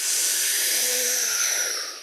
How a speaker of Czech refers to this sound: moji žáci cvičí bench press, jo, tak tam je třeba nádech pusou, se nadechnou